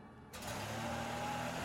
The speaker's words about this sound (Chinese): 费瑞恩和马高各被多射中两次，然后那个男人才回到他的车上，默默驶离。